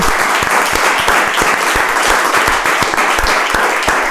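Steady, dense applause from an audience thanking a guest, many hands clapping continuously at a loud, even level throughout, with no pauses and no voices standing out.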